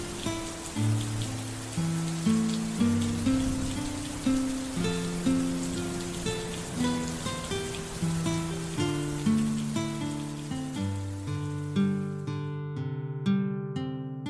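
Steady rain patters as a dense hiss beneath a slow, gentle piano melody; the rain cuts out near the end, leaving a few piano notes ringing alone.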